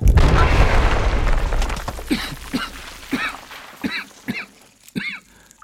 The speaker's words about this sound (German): Wahrscheinlich wurden meine MRI-Bilder herumgereicht und darum versuchen sie jetzt wohl, sich ihren Weg hier hineinzusprengen.